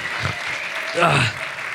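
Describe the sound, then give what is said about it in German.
Steady applause from an audience, a dense crackle of many hands clapping throughout, swelling briefly louder in the middle before settling back to an even wash. “Die klatschen.”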